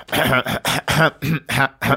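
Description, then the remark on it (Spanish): A voice imitates an audience coughing between movements of a musical work: about seven quick, throaty bursts in a row, fairly loud, with brief gaps between them and no speech. “realmente la gente se pone a toser.”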